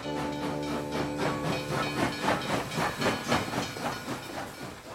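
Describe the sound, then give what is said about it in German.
A steam tram chuffs along with a steady, rhythmic hiss of escaping steam, its regular beats fairly loud, with faint rail clatter and no voices. “Selbst eine so kleine Stadt wie Minden in Ostwestfalen leistete sich nun eine Trambahn, eine Dampftrambahn.”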